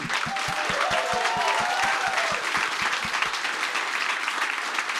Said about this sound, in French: Mesdames et messieurs, donnez une bonne main d'applaudissements pour Eddie King et Eric Etienne.